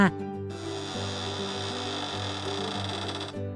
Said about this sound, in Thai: ครั้งนี้ชาวนาเปิดประตูบ้านออกมา